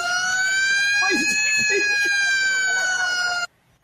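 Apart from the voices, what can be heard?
fire truck siren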